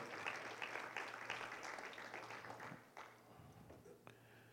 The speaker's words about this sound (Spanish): Damos un aplauso también a los músicos, que es verdad que hacen tremenda labor.